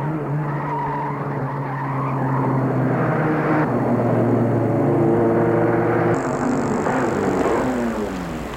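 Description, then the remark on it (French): A car arriving in Paris at full speed: the engine roars with sustained, shifting tire squeal as it skids hard, loud, the pitch sliding as it brakes toward a stop. No one speaks. “ils arrivent à Paris à fond de train.”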